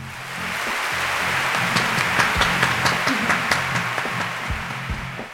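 Canned applause played from the third slot of a jingle deck: dense, sustained clapping from a crowd that swells in, holds steady for several seconds with scattered sharper claps, then begins to fade. No one speaks over it.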